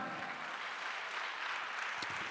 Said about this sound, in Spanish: Denle un aplauso a Cristo por eso, hermano.